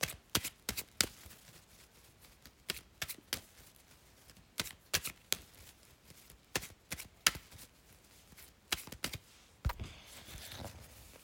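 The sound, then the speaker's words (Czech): Tarot cards being shuffled for a partner reading: a run of crisp, irregular slaps and flicks, some clustered in quick bursts, with brief pauses between, and a soft rustle near the end. No one speaks. “Já už se dívám na vaše fotky, míchám u toho karty a my se spolu podíváme, co nám Perot poví o vás dvou.”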